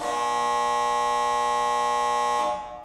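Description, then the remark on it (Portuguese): A loud, steady electronic end-of-game buzzer blares for about two and a half seconds as a single unbroken harsh tone, then cuts off abruptly with a brief fading tail. “Agora sim, fim de jogo, acabou mais um episódio do podcast do Layup.”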